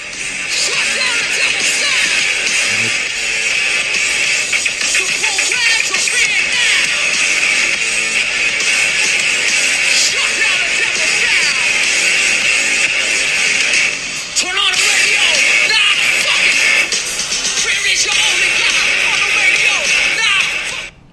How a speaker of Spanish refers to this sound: es un audio de, de unos minuticos donde se oye la banda tocar en vivo y está sonando interesante el grupo. Suena, Suena bastante bien, la verdad.